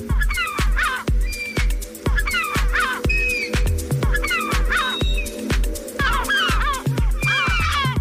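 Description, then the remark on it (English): Harsh, squawking gull alarm calls, seagulls warning of a predator nearby, repeat in overlapping bursts laid over a steady, rhythmic song made for seagulls with a thumping beat, the cries loud and upfront throughout the mix. “And then they've put calls, seagull calls, over the song.”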